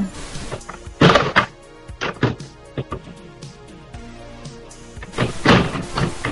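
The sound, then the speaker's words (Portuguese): A computer keyboard tray falls, nearly landing on someone's foot, with a heavy wooden thunk, followed by scattered knocks and rattles and a second loud clattering bang as it settles. “Não, é porque quase que a parte que, fica, que ficaria o teclado do computador quase caiu no meu pé, então.”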